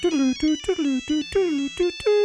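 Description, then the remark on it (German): An old mobile phone rings in a darkened room with a quick, bright electronic melody of short repeated notes, loud, with a faint low buzz of its vibration underneath. No one speaks. “eines alten Handys und die Vibration.”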